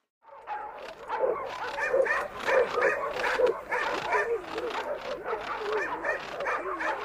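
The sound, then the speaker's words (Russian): A pack of shaggy, fierce-looking, sharp-eared sled dogs barks and yips together in a dense, overlapping chorus, with high excited yelps layered over one another continuously. “И мы заменили нескладных оленей собаками.”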